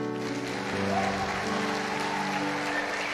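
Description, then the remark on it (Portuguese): Steady audience applause fills the whole stretch at an even level, with sustained musical tones held underneath the clapping. “Eu conheci, pode aplaudir, né, meu irmão?”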